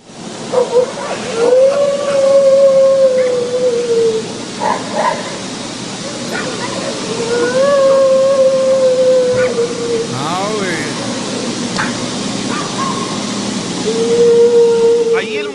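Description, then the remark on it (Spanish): Long, drawn-out eerie wails rise and fade three times at night, fairly loud and steady in pitch, over a hissy background with scattered short yelps or barks between them. “Oye, hay un video que está circulando en el internet, lleva más de 5 millones de vistas. es eh, y escucha cómo grita la supuesta llorona.”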